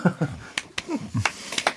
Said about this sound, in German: Okay. Ich kann echt nicht glauben, dass du jetzt klatschst